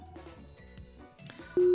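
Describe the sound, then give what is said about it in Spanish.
A quick run of stepped electronic telephone dialing tones plays alone, then a louder steady tone cuts in at the end as the call begins connecting. “A ver, espérame un poquito, te voy a llevar en directo por, como llamada telefónica, ¿vale?”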